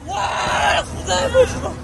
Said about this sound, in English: A fisherman has spotted multiple people in the water and is trying to haul them out. It was pitch dark. It was, a very cold night, minus one, minus two, and there was a lot of screaming.